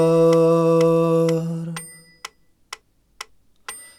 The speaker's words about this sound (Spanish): poniendo una acentuación periódica sobre un pulso constante y manteniendo una relación entre las duraciones de los sonidos. La acentuación va a ser cada cuatro pulsos. Y entonces ahora va a sonar así.